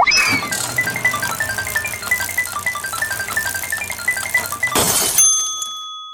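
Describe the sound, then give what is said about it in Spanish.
A virtual icebreaker roulette wheel sound effect clicks rapidly through a steady run of bright, tinkly ticks for several seconds, then a short crashing burst and a lingering ringing chime as it stops. “Exacto, ahí sería el sonido de la ruleta y luego ya caeríamos a una voz de hombre que nos diría.”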